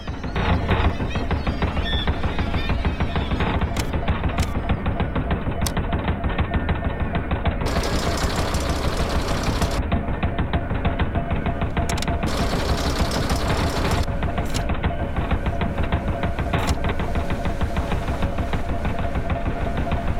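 A running engine pumps away with a fast, steady mechanical chugging, loud, holding an even rhythm from start to finish with no voices.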